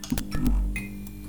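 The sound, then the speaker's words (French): A steady electrical hum from a failing neon tube light close to going out, broken by several irregular crackling clicks as the light flickers, fairly quiet, with no voices. “C'est le son d'une lumière qui marche mal, à deux doigts de s'éteindre.”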